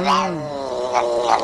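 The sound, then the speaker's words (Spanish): A cat that had attacked the speaker's mother, recorded on a 2003 flip phone, lets out a long, drawn-out aggressive yowl, loud, its pitch wavering and rising in strained harmonic cries over about a second and a half. “a escuchar el gato que atacó a mi mamá.”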